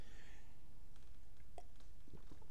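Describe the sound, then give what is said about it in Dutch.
A quiet sip of water, with a few soft wet clicks and a faint swallow against a low background hush, no one talking. “Even een slokje water.”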